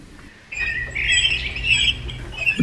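Several birds chirp and twitter in a bright, busy burst that swells after a short quiet start, lively as a small flock flies past overhead.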